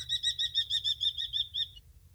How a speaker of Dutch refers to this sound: En ik heb hier het geluid van de torenvalk. Ik zal proberen dat niet zo luid te doen, maar dit is de torenvalk.